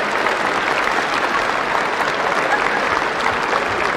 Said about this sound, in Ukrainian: Вони ідуть зі сцени, але оплески не припиняються.